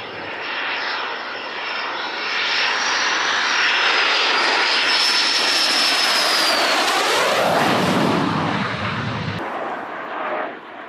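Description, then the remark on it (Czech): A Czech L-159 Alca jet fighter from the Čáslav squadron roars overhead, a loud, sustained rumble with a high turbine whine that bends in pitch as it passes, then cuts off abruptly near the end. No voices. “V Čáslaví je letka L159 Alky je tam plně pomenovaná, to je ty naše stíhačky. Ti občas tady lítají, když je nějaký výročí nebo něco tak letí.”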